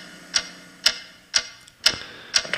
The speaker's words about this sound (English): What is that mysterious ticking noise?